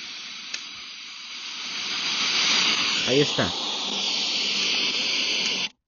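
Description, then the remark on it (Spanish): Steady, loud FM radio static hisses continuously for several seconds from a portable speaker with poor signal as its volume is turned up, a person briefly speaking over it partway through, before the noise cuts off abruptly. “Ahí está con interferencia, voy a subir el volumen.”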